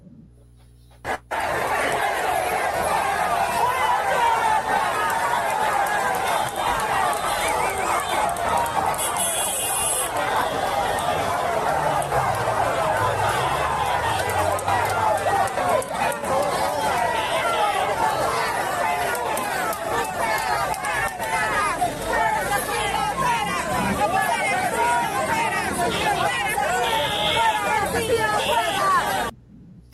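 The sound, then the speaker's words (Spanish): A large street crowd protesting against President Castillo chants and shouts slogans such as "fuera Castillo fuera" together, a dense, loud roar of many voices that carries on steadily for the whole half minute with no pauses. “fuera Castillo fuera, entre otros adjetivos e interjecciones o, sustantivos que le dan al presidente en esos carteles.”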